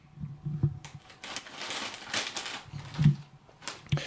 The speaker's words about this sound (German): Mach mal ruhig die, äh, die weiße Tüte auf. In der weißen Tüte Chips sind nämlich Essig-Chips drin. British Style.